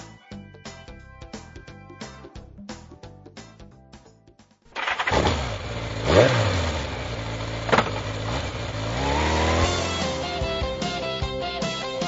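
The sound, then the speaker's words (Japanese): A motorcycle engine cranks with rapid rhythmic pulses, catches after a few seconds, then settles into a loud idle with a couple of sharp revs. “バイク、振動中物語。”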